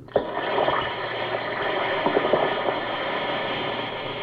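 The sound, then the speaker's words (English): A steady watery hiss of an Alka Seltzer effervescent antacid tablet fizzing in water, with scattered small pops and crackles over a broad wash of bubbling, fairly loud, continuing evenly without any voices. “Listen to it fizz.”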